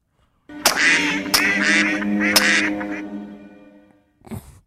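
Ducks quack in a loud burst of several overlapping nasal calls lasting about three seconds, followed after a short pause by one brief, fainter quack.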